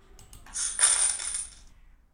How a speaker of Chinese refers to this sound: 继而又拼尽全力飞跑到那家商店，二话没说，便把一百枚五分硬币倒在柜台上。